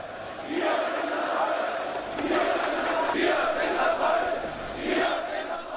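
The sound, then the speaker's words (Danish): A large crowd of about 70,000 people at a nonviolent evening demonstration in Leipzig, demanding more democracy, chants "Wir sind das Volk" in unison, loud rhythmic shouted phrases rising and falling in repeated waves over a dense roar of many voices. “Immer wieder war der Ruf zu hören, wir sind das Volk.”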